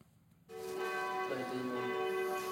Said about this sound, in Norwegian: Kirkeklokkene ringer utenfor klinikken til Leger uten grenser i den bosniske byen Bihac.